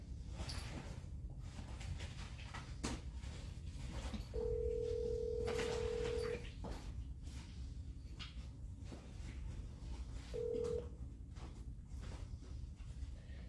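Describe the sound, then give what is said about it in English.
A phone call being placed and ringing: one steady, mid-pitched ring tone of about two seconds, a long quiet pause with low background hiss, then the start of a second ring. No one speaks. “I'm gonna try, but she may not answer.”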